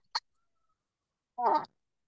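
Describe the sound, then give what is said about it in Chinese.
A teacher imitates a rooster crowing as a game with a child, one short, loud, strained vocal burst that has a bright, buzzy tone. A brief click comes before it, and there is quiet in between. “我叫的很像，对不对？就，就孩子就很开心，那边学公鸡叫。”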